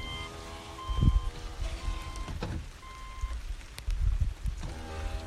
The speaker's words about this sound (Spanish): Yo en este momento estoy en el coche grabándote este episodio. En el coche. Hay lluvia afuera. Es más, voy a bajar, voy a bajar la ventana para que escuches la lluvia.